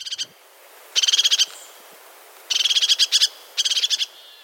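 A crested tit gives its dry, high-pitched neighing trill in three quick, stuttering bursts, each a rapid string of buzzy notes, clear against a quiet background.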